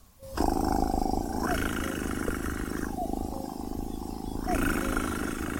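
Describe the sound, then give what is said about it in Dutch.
A European nightjar churring on a heathland, a continuous dry rolling rattle that runs unbroken for several seconds, fairly loud, with no voices. “En vaak, hun geluid is een soort droge, rollende ratel.”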